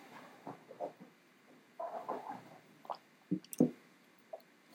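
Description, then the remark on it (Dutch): Wet mouth sounds: a few soft slurps and squishy gulps, with two sharper swallows near the end, as someone takes a sip of water without talking. “Ik neem even een slok water.”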